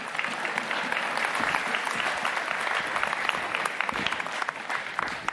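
Sustained audience applause given in thanks, a dense, steady patter of many hands clapping at even loudness for several seconds, with no one speaking over it.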